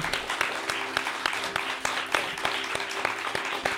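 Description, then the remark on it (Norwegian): Brisk applause from a small group, many hands clapping in a steady, dense patter that stays fairly even throughout, close and moderately loud with no voices on top. “Ok, jeg vil klappe for deg”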